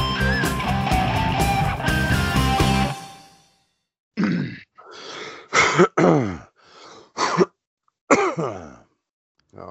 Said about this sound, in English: Get all the coughs out.